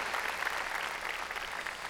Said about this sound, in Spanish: Ahora, démosle palmas fuertes a nuestro Señor.